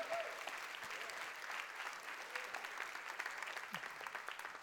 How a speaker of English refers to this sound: Can you give Nate a round of applause? Thank you, Nate.